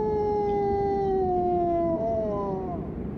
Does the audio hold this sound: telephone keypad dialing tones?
no